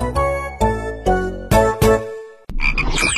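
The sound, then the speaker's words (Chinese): A frog croaks five times in quick, uneven succession, each croak deep, buzzy and resonant, followed by a brief burst of bubbly, rustling noise. No one speaks. “因为我每次听故事都能回答对小青蛙提的问题。”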